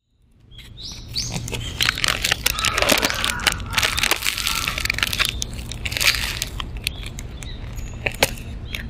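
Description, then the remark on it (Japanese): Loud crunching of crisp, flaky Danish pastry dough being bitten and chewed, a dense run of crackly, crisp snaps lasting several seconds with no talking. “パリパリのデニッシュ生地のパリパリ具合が半端なくて、もう、歯を入れるとパリパリパリパリっていう、ザクザクって音がするんですよ。あまりに、あまりにその音が素晴らしかったので、撮りました。”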